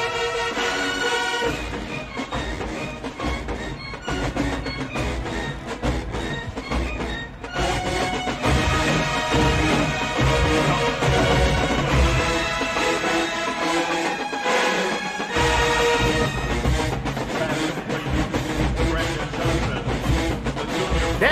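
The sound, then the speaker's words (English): A marching band plays loudly and continuously, with layered sustained woodwind and brass lines over a steady rhythmic pulse; the low end briefly drops out for a moment before returning. No one speaks. “woodwind part I always be kind of getting me off, though.”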